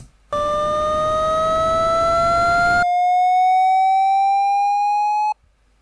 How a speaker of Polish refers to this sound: Mogę to jeszcze raz odtworzyć, żeby można sobie to było spokojnie przeanalizować. Na początku będzie szum i będzie ton oznaczający lewą stronę, po czym szum zniknie, a ton się zmieni.